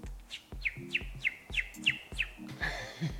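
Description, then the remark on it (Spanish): A person imitates little bird chirps: a quick, steady run of about eight high, sliding tweets, fairly loud, with a faint low voiced hum beneath. “Igual también haciéndole ruidos de pajaritos quizás.”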